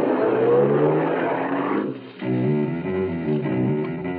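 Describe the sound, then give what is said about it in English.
A small sedan's engine revs and accelerates as it drives off from a supermarket parking lot, drops briefly as if shifting gears, then picks up again with a steady droning pull. No voices. “I found a small, inconspicuous sedan with its keys tucked in the sun visor above the wheel. I got in and drove off.”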